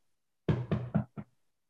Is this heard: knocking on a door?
yes